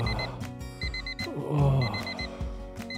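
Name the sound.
alarm clock ringing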